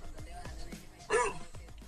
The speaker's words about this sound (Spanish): Ya lo encontré. Así ladra un sabueso. Es como de humano ese, ¿eh?